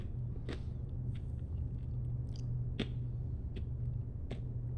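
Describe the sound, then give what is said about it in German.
A handful of sharp finger snaps at irregular intervals, crisp but not very loud, over a steady low hum and rumble with no talking. “Schnipp.”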